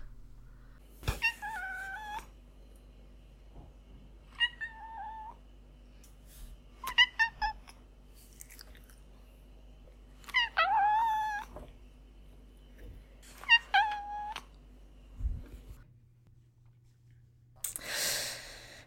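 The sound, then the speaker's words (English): A domestic cat named Julian meows five times, fairly loud, with drawn-out, wavering calls separated by short pauses and no talking over them. “So let's hear what Julian has to say about this book.”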